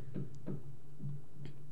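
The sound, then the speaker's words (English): Four muffled, dull knocks made by a neighbor repeat in an uneven rhythm over a steady low background hum. “She keeps knocking, like keeps like knocking.”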